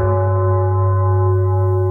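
A deep, resonant gong rings out loudly on its own, its rich, droning tone sustaining steadily for about two seconds without fading.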